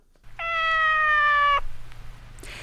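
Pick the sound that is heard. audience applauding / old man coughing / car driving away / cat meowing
cat meowing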